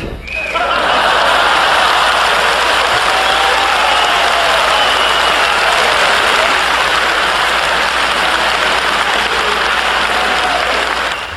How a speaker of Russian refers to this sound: А какие бурные, долгие продолжительные аплодисменты, да.